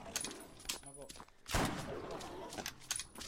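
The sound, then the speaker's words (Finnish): Video game gunfire, a shot fired from across a river: a loud, sharp blast in the middle with a burst of scattered shots and clicks around it, and a voice murmuring faintly underneath. “Mä ammuin täältä joen toiselta rannalta sen toiselle vuodelle, sen yli.”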